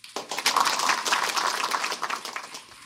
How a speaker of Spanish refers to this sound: Dale otro aplauso fuerte al Rey.